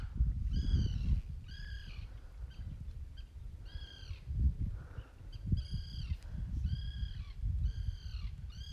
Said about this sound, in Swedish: Det är glada fåglar här. Det har regnat hela dagen och nu tittar solen fram.